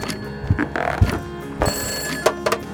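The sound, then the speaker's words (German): A wall telephone's mechanical bell rings loudly at a railway crossing keeper's post, a rapid, bright metallic jangle in several bursts with faint knocks between them. No voices. “Gerade als er die Klinke herunterdrücken wollte, klingelte das Wandtelefon.”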